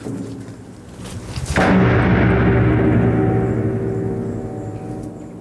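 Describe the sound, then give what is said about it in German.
A heavy metal door that rotates in the middle of a tube slams shut with one loud, booming clang, then rings out in a long, hollow metallic reverberation inside the tube. No one speaks. “das ist halt so eine, eine Tür, die man in der Mitte oh. der Röhre dreht.”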